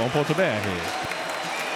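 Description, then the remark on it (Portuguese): A stadium crowd of Grêmio fans applauds Thiago Neves, number 10, coming on as a substitute for Luciano in a match against Esportivo. The applause is a steady, dense wash of clapping and noise, with a man's voice talking over it at the start before the applause carries on alone. “Aí a torcida do Grêmio agora aplaudindo a entrada do Thiago Neves.”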